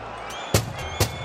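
Fortuna Sittard coach Julio Velasquez pounds his fists on the dugout during a match against Go Ahead Eagles in Sittard: a faint first knock followed by two heavy, booming bangs about half a second apart, over a steady murmur of crowd noise.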